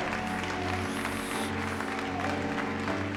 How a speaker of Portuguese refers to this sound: Aplauda o Senhor, aplauda o Senhor, aplauda o Senhor.